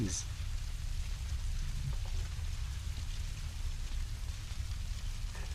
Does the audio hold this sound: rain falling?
yes